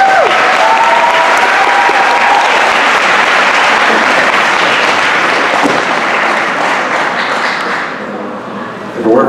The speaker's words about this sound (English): Can you guys give him a round of applause?